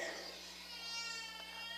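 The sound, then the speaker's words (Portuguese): A baby girl who wants to nurse fusses and whimpers in a thin, drawn-out cry, quiet, continuing steadily through the short moment over a low background hum. “Ó, o neném está querendo, está querendo a benção.”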